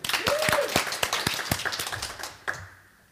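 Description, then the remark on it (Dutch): A burst of applause from a small group for Bram Esser. Dense, irregular clapping thins out and fades over about three seconds, with a brief whoop near the start. “nou, wat een applaus voor Bram Esser.”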